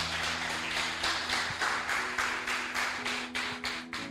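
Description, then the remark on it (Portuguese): An audience applauds Jesus, clapping together in a steady, rhythmic beat, about a dozen strong claps in quick succession, with a low sustained hum or organ-like tone underneath and no talking. “Vamos aplaudir bem forte a Jesus.”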